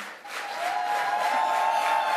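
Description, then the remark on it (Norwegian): A crowd at the Venstre party national congress stands and applauds steadily for a long time as Trine Skei Grande goes up to the podium, a dense wash of clapping that swells in the first moments and then holds at a loud, even level, with a faint tonal hum running beneath it. “går hun opp på talerstolen, og salen reiser seg og klapper.”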